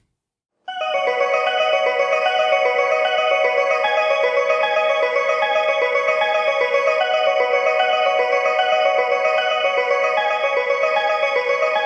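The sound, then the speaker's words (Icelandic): A bright, chiming electronic departure melody at Shimbashi train station, one of the oldest stations in Tokyo, in the city centre near Tokyo Station, plays continuously and steadily at a fairly loud level, with layered bell-like tones repeating in a cheerful pattern. No one speaks. “Og síðan er það eitt sem er í, í ákveðinu uppáhaldi hjá mér, það er uh, Shimbashi uh, sem er sko lestarstöð ein af þeim eldstu í Tókjó, hún er í alveg miðbænum rétt hjá Tókjó Station sem er önnur stöð.”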